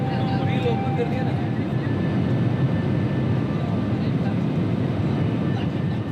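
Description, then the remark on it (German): An airplane approaching to land at Bhutan's only international airport, set in a valley between peaks nearly 5000 meters high: a loud, steady engine roar with a thin high whine running through it, holding constant for the whole stretch without fading. “Schon der Anflug ist exklusiv. Einige sagen allerdings, er sei alles andere als märchenhaft.”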